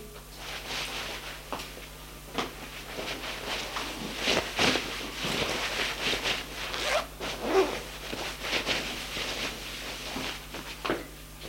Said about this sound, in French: Ensuite, elle s'habille.